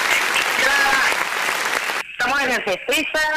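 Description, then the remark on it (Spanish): A crowd at the Festeza theatre festival in Santa Cruz claps steadily for about two seconds in a dense, even wash of applause, then a man starts talking over the fading clapping. “Vamos, vamos, con, vamos de nuevo, vamos de nuevo con un aplauso.”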